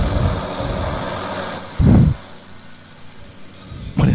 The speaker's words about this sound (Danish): Det er en helikopter med rundsav på. For dem, der lagde linket op, de kaldte det for øh, en motorsave, men en motorsave, den har jo sådan... En chainsaw, den har jo en kæde.